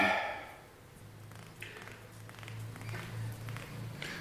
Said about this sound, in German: Ganz schön laut hier bei dir, finde ich. Also jetzt von jetzt, wo wo keine Stimmen in der Wohnung sind. man hört das von draußen, den, den Verkehrslärm so stark.